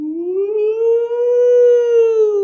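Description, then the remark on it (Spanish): A loud air raid siren wails steadily in Israel, its tone rising slightly and holding in a long, continuous note with no voices present. “Y empieza a sonar una alarma.”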